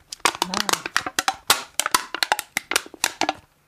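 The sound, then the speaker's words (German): An aluminium cola can being crushed and crinkled, a rapid series of sharp metallic crackles and pops lasting a few seconds, with no talking. “Also es war, es war eine Cola-Dose.”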